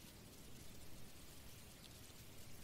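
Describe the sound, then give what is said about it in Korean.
Soft, steady rain falls in a continuous gentle hiss, as if soaking into soil, quiet and even throughout with no voices or other sounds. “떨어지는 소리 크게 지붕을 두드려서 나는 작은 손, 텐마루를 적시는 자그마한 소리, 또 흙에 스며들어가는 소리.”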